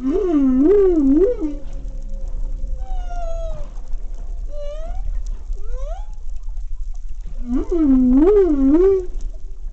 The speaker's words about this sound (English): If you've thought about ocean sounds before, you might have thought of these singing mammals the humpback whales. Male humpback whales produce complex vocalizations during mating season